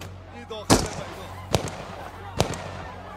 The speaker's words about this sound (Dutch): De Amerikanen willen die mensen tegenhouden. Die lopen te drukken. Dus stungranaten, waarschuwingsschoten in de lucht.